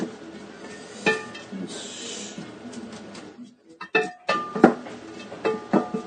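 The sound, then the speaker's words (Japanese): Onions sizzle in butter with a steady, soft hiss, broken by scattered clinks and scrapes of a utensil against the pan, the knocks growing sharper and more frequent toward the end. “今は玉ねぎをバターで白してるとこですね”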